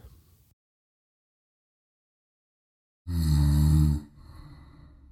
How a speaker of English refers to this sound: the dark hut was roaring with the sound of a gargling, snoring sound coming from Coca's bed